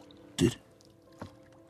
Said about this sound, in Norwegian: Det vesle plasket av dråper i havet sementerer stillheten.